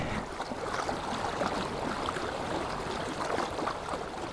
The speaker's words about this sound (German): Da rinnt das erste Wasser. Jetzt werde ich mal ganz nah rangehen mit dem Mikrofon. Und dann können wir vielleicht das Wasser sprudeln hören, das dann zum Missouri River wird.